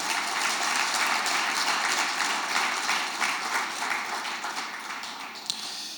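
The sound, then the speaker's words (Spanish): An audience bursts into strong, sustained applause for God, a dense crackle of many hands clapping at once that holds steady before gradually thinning out toward the end. “¿Por qué no le damos un fuerte aplauso a Dios por eso?”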